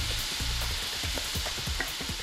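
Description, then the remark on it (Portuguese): Shrimp seasoned with hot sauce, white pepper and salt sizzle steadily in a hot frying pan, a dense, bright crackle and hiss that stays loud throughout, with a few low clunks and scrapes of stirring underneath. No one speaks. “Molho picante, pimenta branca e sal. Põe o camarão.”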